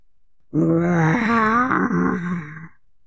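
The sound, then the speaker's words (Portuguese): A single loud, drawn-out growling roar, made by a human voice imitating a dragon, lasting about two seconds with a wavering, groaning tone before trailing off. “E lá dentro, apavorada, um rugido ela ouviu.”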